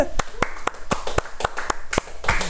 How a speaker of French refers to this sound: On finit ça avec euh, une main d'applaudissement du public.